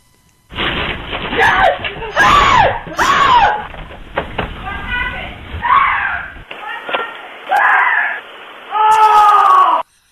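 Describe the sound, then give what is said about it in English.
A man lets out a series of loud, panicked screams and yelps in rapid bursts, his voice rising and wavering in pitch, with a few sharp knocks and a woman's voice calling out between them. A rat has jumped onto his shirt sleeve as he went out on his porch to get pet food. “No, he's scared by a rat. I would scream like that with a rat jumped on me”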